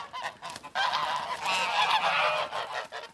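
Several geese honk loudly, their harsh, overlapping calls forming a continuous noisy chorus with brief gaps at the start.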